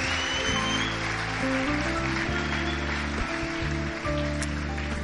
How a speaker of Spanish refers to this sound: Amén. Séllalo con un aplauso. Gloria a Dios.